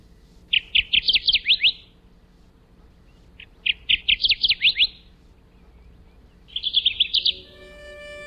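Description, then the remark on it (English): A Kirtland's warbler sings three loud, bright phrases of rapid chattering notes rising in emphasis, each about a second long with short pauses between, clear over a faint low hum. “The Kirtland's warbler has a bluish gray face and back, a yellow throat, chest, and belly, black stripes down its sides, and white crescents above and below the eyes.”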